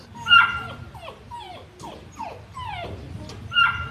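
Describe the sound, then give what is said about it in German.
A St. Bernard dog whimpers in a string of short, high, falling whines, about a dozen in quick succession, fairly clear, with a low rumbling background and no talking. “Doch dank der Stiftung ging es weiter mit den berühmten Hunden vom großen St.”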